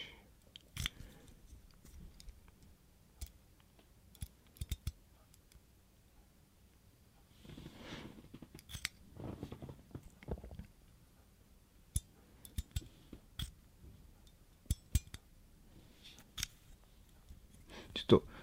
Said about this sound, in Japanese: ちょっと無言になるけど、あの、お皿洗っとって、ちゃんと。あえて無編集で流そう、これ。